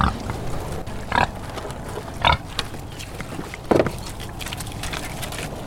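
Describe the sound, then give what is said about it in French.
Blanc de l'Ouest pigs, raised free-range and organic, grunt and snort, with three louder bursts spaced a second or so apart over a steady murmur of lower grunting and outdoor background noise. “quand vous, venez acheter des produits porc blanc de l'Ouest élevés en plein air bio, vous êtes acteur de la sauvegarde de la biodiversité de notre région également.”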